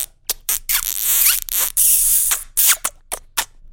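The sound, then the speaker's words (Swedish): A rapid string of wet kissing smacks given as kisses on the listener's forehead, around ten sharp pops with a couple of longer hissy, squeaky stretches between them, fairly loud and with no talking. “ta fram pannan och så får vi bara pussa på dig.”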